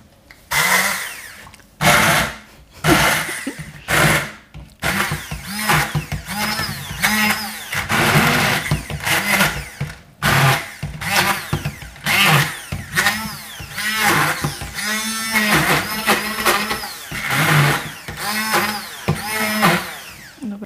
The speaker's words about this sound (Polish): Nasze nasiona zostały już zblendowane